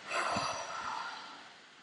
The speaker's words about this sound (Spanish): El pranayama en el yoga significa ejercicios de respiración. Prana, energía vital controlar tus respiraciones, hacer agnizaras, ejercicios de respiración. Te voy a enseñar uno rapidito. Inhala fuerte, sostienes